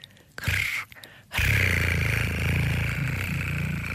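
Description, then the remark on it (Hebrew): A person imitates the purr of a happy cat with a rolling, throaty rumble, first a brief burst, then a longer steady purr lasting several seconds, fairly loud. “אז אתה יודע שחתול שמח לקראתך כשהוא מגרגר קול כזה.”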